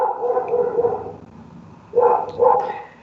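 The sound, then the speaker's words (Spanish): A dog barks: a drawn-out, strained bark-whine first, then after a short pause two quick, sharp barks in succession, with no talking. “Y un perro al que no le gusta.”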